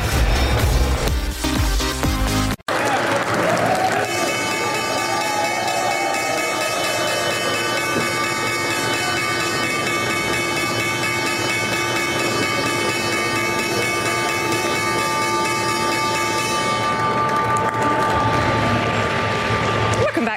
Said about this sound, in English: the opening bell this morning from the New York Stock Exchange.